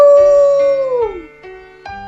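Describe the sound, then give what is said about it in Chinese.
The enraged roar of the character Black Dragon in a narrated story: one loud, drawn-out tonal wolf-like cry that slides downward in pitch, followed by two shorter, steadier calls at a lower pitch, with no talking. “黑龙看到阿吴被一群火狼围住撕扯着，不可遏制的怒吼起来：“哦哦！”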